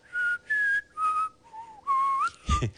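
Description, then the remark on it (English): A person whistles a short melody of about five clear notes, shifting between pitches with small slides, ending in a brief breathy burst. Fairly loud, with no talking. “I bet I can whistle it for you without giving it away.”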